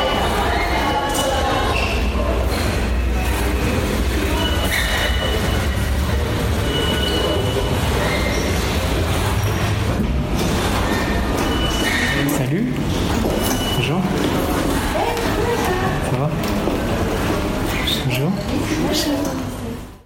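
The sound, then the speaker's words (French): Loud, steady railway ambience at Chelles-Gournay station with a train rumbling past, wheels screeching and squealing over a constant low roar for the full stretch before it cuts off. “Bonjour à toutes et tous, nous sommes à la gare de Chelles-Gournay et dans un écolieu qui est hébergé dans la gare qui s'appelle Les Ciboulettes”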